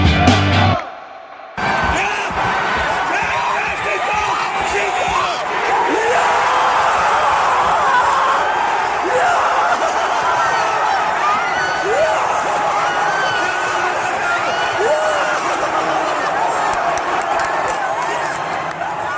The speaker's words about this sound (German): Und mit diesen Jubelstürmen ein herzliches Willkommen zum Hertha Base Podcast.